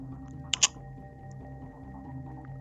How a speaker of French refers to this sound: Tu reconnais ce bruit Tu connais ce bruit C'est comme si qu'en fait on, armait. On armait un, Une on armait un chien. de... Il, arme son... Il arme le chien de son, son colt.